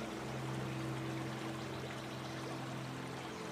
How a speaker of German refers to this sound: Der Fluss scheint still zu stehen, aber der Schein trügt. Alles ist in Bewegung. Das Wasser fließt langsam stromabwärts und mit ihm alles, was sich darin befindet.